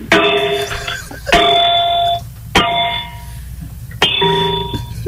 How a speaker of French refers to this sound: Si je, je frappe sur le, le socle, là, le pied, ça, c'est c'est un drôle de son. OK. Non, je, je en tout cas, ça me semble être, être du bronze.